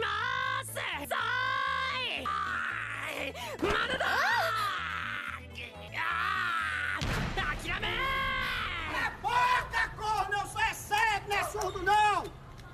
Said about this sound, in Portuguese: Só que, tal como Naruto, me irritou, porque o personagem tem uma voz insuportável, ele fica gritando o tempo todo